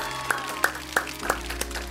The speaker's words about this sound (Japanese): 今本当にこのイエスについて決断をした人みんなで教会みんなで一緒にお祝いしていきましょうリビングルームからみんなで大きな拍手していきましょ